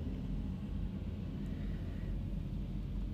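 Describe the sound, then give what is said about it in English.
A steady, low rumble of road and engine noise recorded from inside a car, constant and unbroken with no voices over it. “In today's episode, again, I'm actually recording from my car.”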